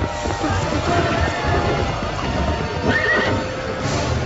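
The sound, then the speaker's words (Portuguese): A horse-drawn carriage pulls away with a steady clatter of hooves and rumbling wheels, while horses whinny loudly above the continuous noisy bustle. “A carruagem partiu rapidamente, deixando para trás a multidão de espíritos obsessores”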